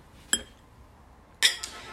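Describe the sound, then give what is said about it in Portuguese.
Two bright glass clinks ring out about a second apart, each with a short shimmering ring that fades quickly, like glasses touched together in a toast, with no voices. “Um brinde ao segundo episódio.”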